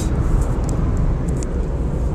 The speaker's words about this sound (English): So uh, I'm in the car just now. Hopefully, you can hear uh, this message. I've got a little message uh, as I drive home from my training tonight.